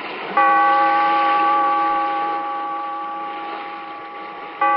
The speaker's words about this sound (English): Bellkeeper, toll the bell.